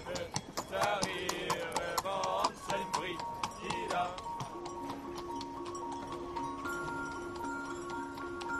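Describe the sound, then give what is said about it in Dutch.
Hooves of 30 heavy farm horses, decorated with bells and flowers and pulling a pine tree on a special wagon along the road from the forest to the village, clip-clop in a steady, uneven patter, with bells jingling and voices murmuring around them. “De den is op een speciale dennenwagen gehezen en de mannen hebben er maar liefst 30 paarden voor gespannen.”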